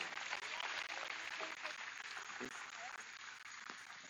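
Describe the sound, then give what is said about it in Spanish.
A church audience applauds the Lord Jesus steadily, a dense crackle of many hands clapping without pause for about four seconds, with faint voices mixed into the sustained roar. “Tiene un aplauso al Señor Jesús porque Él está aquí con nosotros.”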